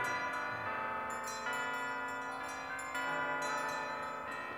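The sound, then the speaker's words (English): Church bells ring from steeples in a steady, overlapping peal, with fresh strikes landing every second or so over a sustained, shimmering wash of tones. No voices are heard. “But soon, the steeples called all good people to chapel and to church and to the celebrations of the day.”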